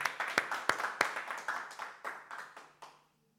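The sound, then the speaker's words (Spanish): A crowd applauds for the Lord, many hands clapping in a dense, uneven patter with a few sharper claps standing out, lasting about three seconds before tapering off into silence. “Así es de que un fuerte aplauso para nuestro Señor, mis hermanos.”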